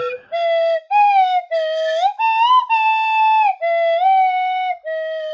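A slide whistle plays a slow, dramatic melody up close, holding a string of loud, breathy notes joined by smooth upward and downward pitch glides, with no voices.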